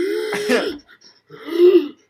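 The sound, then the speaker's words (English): A voice imitates a woman's heavy, labored gasping for breath on the verge of death, two raspy, strained bursts with a short pause between them, and no words spoken. “I can't wait to watch a woman like breathing heavily on the verge of death for two hours.”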